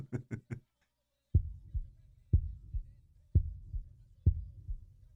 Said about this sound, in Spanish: Pero el corazón siguió latiendo, con un sonido ahogado. Claro que no me preocupaba, pues nadie podía escucharlo a través de las paredes. Cesó por fin de latir.